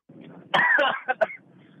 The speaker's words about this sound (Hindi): जिस तरह से पॉल्यूशन बढ़ता जा रहा है आगे आने वाले कुछ सालों के अंदर में दिल्ली में रहने के लिए ये करना जरूरी हो जाएगा कंपलसरी हो जाएगा तो मैं प्रैक्टिस करा रहा था यहाँ पे कि कौन बेहतर तरीके से खांस सकता है वही दिल्ली में रहने का हकदार रहेगा इन फ्यूचर